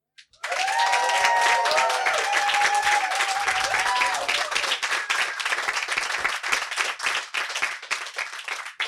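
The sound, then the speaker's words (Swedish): A crowd claps and applauds steadily for several seconds, with a few whoops and cheers rising over the dense patter early on before the clapping thins toward the end. “Vill ni applådera igång oss?”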